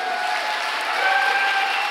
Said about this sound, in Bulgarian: О, ако ръкопляскаш, ръкопляскай, като ще вярваш.